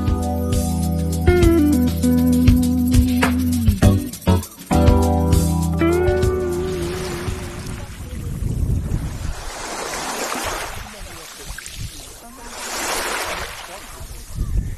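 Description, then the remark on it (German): Ocean waves roll onto the beach at Travemünde in the morning as broad, rushing swells of surf, building and fading in two clear surges, following a short stretch of steady tonal sound at the start. “Das sind die Wellen, die hier heute Morgen an den Strand von Travemünde rollen, schlagen, wie man auch immer sagt.”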